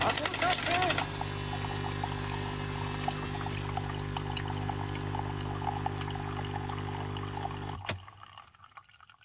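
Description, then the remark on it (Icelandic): Coffee is poured in a steady, continuous stream over a low mechanical hum, running for several seconds before stopping abruptly near the end, leaving near silence. “Ég ætla að byrja að rósa þig fyrir kaffi”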